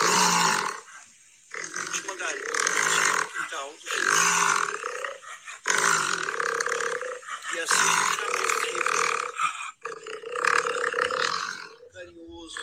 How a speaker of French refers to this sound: le son que vous venez d'entendre, c'est un Jaguar qui était vraiment pas loin de nous autres